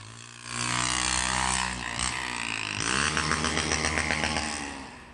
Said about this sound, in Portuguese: Moto fazendo, é, fazendo manobra perigosa, carros é, fazendo malabarismo né, em alta velocidade durante a madrugada.